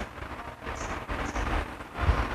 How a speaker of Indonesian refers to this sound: Tuh, udah ada rintik, sumpah. Gue gak bohong.